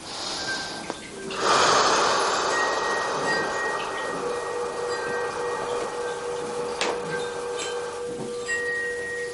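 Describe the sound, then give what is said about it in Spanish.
A gong, played during a guided breathing exercise, swells into a loud, shimmering wash of sustained metallic overtones that rings on steadily for several seconds, alone with no voices. “Y sentimos como las ondas que atraviesan el aire que respiramos penetran el sonido del gong y van penetrando a través de ese, ese aire, que es el canal que nos comunica con el exterior.”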